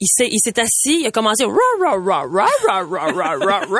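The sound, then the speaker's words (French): A man talks briefly, then a voice imitates Gibson, a singing royal poodle, singing along: a quick run of about nine repeated syllables that rise and fall in a wavering, howl-like melody, loud. “Il s'appelle Gibson et c'est un chien chanteur, mesdames et messieurs.”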